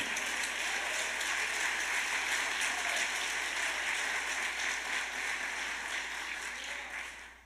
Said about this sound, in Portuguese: aleluia, aplauda o Senhor Jesus Jesus por isso.